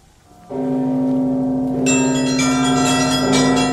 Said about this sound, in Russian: Потом радостный, переливчатый трезвон, такой веселый после заунывных великопостных колоколов, разнес по миру благостную весть о воскресении Христа.